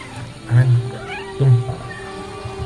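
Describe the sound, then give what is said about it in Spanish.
A female cat meows twice, fairly loud: two drawn-out, wavering cries about a second apart over a faint steady background hum. “que nos están atacando acá los, la, gata asesina.”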